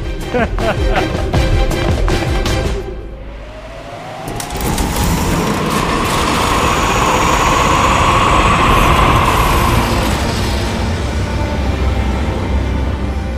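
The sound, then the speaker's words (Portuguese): Heavy engines of a large cargo vessel raising desert dust roar loudly and steadily, a dense low rumble with a whining tone that rises and swells in the middle before fading back into the continuous drone. “Vocês caminham pela poeira do deserto, levantada pelos motores do grande cargueiro que Shimira preparou, com todos os seus, todos os robôs.”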